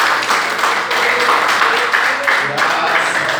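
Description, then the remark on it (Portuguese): Sustained, dense clapping from a large audience at an evening religious gathering, steady and loud for a few seconds with a faint low hum beneath. “Assim eu agradeço a oportunidade e as palmas que louvo nesta noite.”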